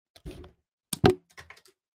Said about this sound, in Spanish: Ese fue el sonido de cortar una tarjeta por la mitad y que caiga al piso.